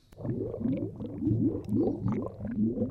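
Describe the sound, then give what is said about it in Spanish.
A sci-fi protective force field, based on ozone, hums as it is switched on, droning steadily, its low tone warbling and wobbling in repeating swells for the full duration, with no voices over it. “Este campo de protección suena igual que, la esfera protectora del viaje al pasado de, hace dos programas.”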